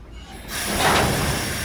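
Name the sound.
train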